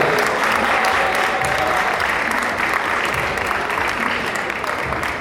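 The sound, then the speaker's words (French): A crowd claps steadily, a dense, even wash of many hands that holds at a constant loudness throughout, with a faint murmur of voices underneath, applauding the jury at the Festival francophone des web-séries. “On peut les applaudir.”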